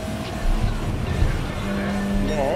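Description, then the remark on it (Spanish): A race car roars steadily, its engine droning, with a short rising tire squeal near the end as it slides through a corner. “Él está cuidando bien el carro y cuidando bien los puntos donde está la curva, los ápices.”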